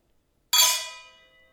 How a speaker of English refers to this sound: Can we cheers? Yeah. Let's say cheers until next time. We're gonna double cheers. All right.